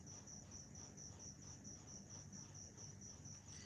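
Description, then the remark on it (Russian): Crickets chirp in a steady, continuous trill, their high pulsing song running throughout over the low, constant hum of a fan. No voices are present. “Звук сверчков и вентилятора хороший, не прибавляйте.”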